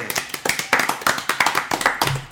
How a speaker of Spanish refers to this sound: Un aplauso para todos ellos que han sido los mejores del 2012